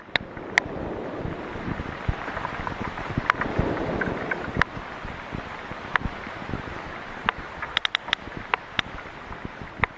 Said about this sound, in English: So, in that recording, you're hearing multiple whales clicking, and specifically, many of those whales are producing codas again, those stereotyped patterns of clicks.